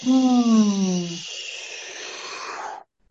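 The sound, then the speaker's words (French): A voice imitates a falling whistle that glides downward for about a second, then trails into a steady, breathy hiss before stopping abruptly. Fairly loud, with no speech. “En fait, je fais un espèce de mix entre un sifflement descendant et un souffle.”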